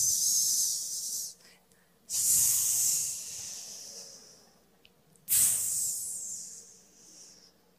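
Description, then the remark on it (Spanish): Three long, loud snake-like hisses, each a sustained breathy "sss" that fades out, separated by short pauses; it sounds like a person imitating the serpent in a Bible story, with no talking. “Se estaba desinflando la serpiente.”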